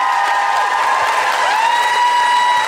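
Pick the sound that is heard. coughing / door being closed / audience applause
audience applause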